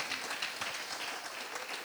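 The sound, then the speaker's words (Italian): An audience breaks into sustained applause of praise for the Lord, a dense, steady wash of many hands clapping at once with no voices standing out above it. “Fai un applauso di lode per il Signore.”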